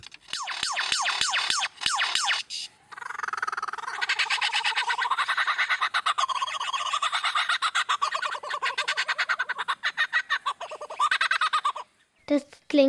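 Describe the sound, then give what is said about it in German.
A lyrebird mimics mechanical sounds: a few sharp, ringing alarm-like whoops with clicks, then a long, loud rasping buzz like a chainsaw, ending in brief chirps. No talking. “Wenn in Australien plötzlich eine Motorsäge heult oder ein Feuerwehralarm losgeht und die Geräusche immer aus der gleichen Ecke kommen, könnte es sich durchaus um einen Leierschwanz handeln.”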